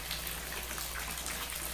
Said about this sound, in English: illuminated in the wild reflections of light from the two vanities in the room, the bathtub, two thirds filled with water seeping lazily from the spout.